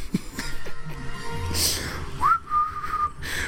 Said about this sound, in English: But like when anyone else hears you whistle, man, if you're moving, especially, it's creepy as fuck.